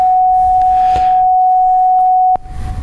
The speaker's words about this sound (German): Das, das, das, der Kammerton ist das. Kammerton A oder wie?